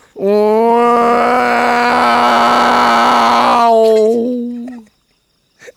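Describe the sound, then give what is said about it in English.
A person vocally imitates a booming cinematic surround-sound intro: one long, loud, sustained droning tone held for about four seconds with a gritty texture, then tapering off, with no words spoken. “I think I'm pretty sure it's like when a mo- movie's made in Dolby surround sound.”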